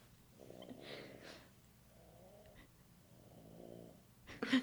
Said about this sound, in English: like hard, hardcore snoring.